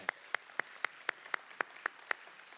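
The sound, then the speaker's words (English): A short round of applause for college students: about nine sharp, evenly spaced hand claps in a steady quick rhythm, with no talking over them. “Let's give our college students a little round of applause today.”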